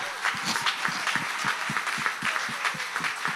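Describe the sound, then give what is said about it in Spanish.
A crowd claps together in a steady, even rhythm, sharp overlapping hand claps repeating several times a second over a constant bed of crowd noise, with no talking, giving applause to the Lord. “Si le vas a dar el aplauso al Señor”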